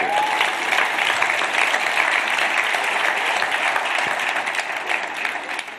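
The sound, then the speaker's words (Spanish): Sustained applause from a crowd, a dense, steady wash of clapping that stays loud and even for several seconds before easing slightly at the end. “Un aplauso, por favor.”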